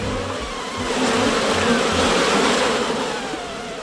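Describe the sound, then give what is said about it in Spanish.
A swarm of insects buzzes in a dense, continuous drone: flying insects in the air, with cockroaches, spiders, scorpions and lice advancing over the ground in tight ranks. The drone swells louder through the middle and eases slightly toward the end, with no voices present. “Los insectos voladores por el aire, las cucarachas, las arañas, los alacranes, los piojos y demás insectos avanzaban por tierra en prietas filas”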